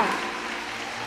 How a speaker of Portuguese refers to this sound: Porque lugar de crente pode aplaudir o Senhor, se é para aplaudir, aplauda com força.